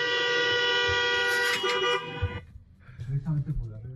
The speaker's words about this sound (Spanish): y todo el mundo tocando el claxon, así se escuchó, miren nada más.